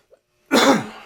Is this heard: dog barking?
no